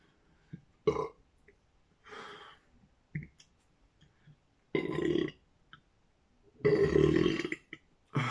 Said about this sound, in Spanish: Segundo eructo.